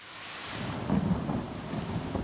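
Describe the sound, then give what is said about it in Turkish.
A heavy downpour with hail roars steadily in Çorum, Turkey, with a deep low rumble swelling through the middle; dense and loud throughout, with no voices. “Çorum'da ise hem sağanak hem dolu vardı.”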